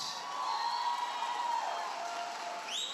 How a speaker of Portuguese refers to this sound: Diga assim: você sabia que amanhã vai retomar a primeira etapa da obra da Catedral do Amor? Amém? Aleluia! Dá um aplauso bem forte.